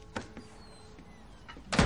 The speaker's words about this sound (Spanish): Mira alrededor, entra en la casa y cierra la puerta.